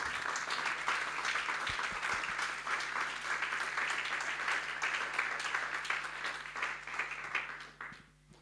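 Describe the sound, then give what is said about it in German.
A church audience applauds steadily, dense clapping at a constant level for several seconds before tapering off near the end. No one speaks over it. “Gebt ihnen doch mal einen riesen Applaus.”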